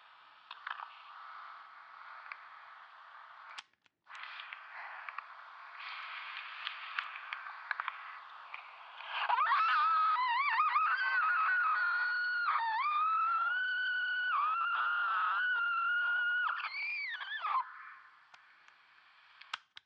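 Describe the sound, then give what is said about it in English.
Heavily distorted screaming recorded on a micro cassette, a thin, narrow-band wail with wavering, sliding pitch that swells loudly midway, preceded by crackly, clicking tape noise and hiss. “It's just me screaming into the tape and it generates a very beautiful distorted uh, sound.”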